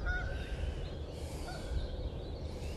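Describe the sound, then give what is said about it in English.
Canada geese honk repeatedly as they glide in, several short nasal calls scattered across a steady low rumble of outdoor background noise, with no one speaking. “If you can't tell by the honking, it's actually a Canadian geese.”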